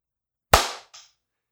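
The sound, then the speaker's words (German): After a countdown from three, a single loud, sharp hand clap for syncing audio cracks out of silence, its bright snap fading quickly, followed by a short, fainter burst just after. No one speaks. “Deswegen klatschen in drei. Drei, zwei, eins.”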